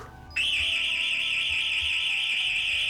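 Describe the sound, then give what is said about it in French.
An intruder alarm suddenly starts up, a loud, piercing high-pitched electronic tone that holds steady and unbroken, with no voices over it. “Eh, mais qu'est-ce que c'est C'est un anti-intrusion.”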